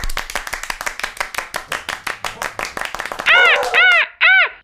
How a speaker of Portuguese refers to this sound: Recebam com palmas e alegria a arara azul.